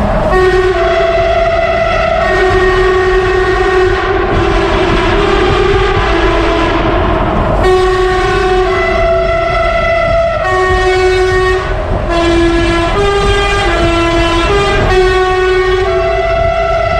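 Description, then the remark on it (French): Loud, sustained train-style air horns on two trucks blare in long chords with a few short gaps, shifting pitch as they overlap, echoing heavily in a tunnel. No one speaks. “J'avais posé un, un, klaxon de train avec un compresseur.”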